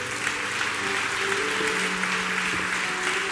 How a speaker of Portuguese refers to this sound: Deus abençoe a tua vida. Dá uma salva de palmas pela vida dela.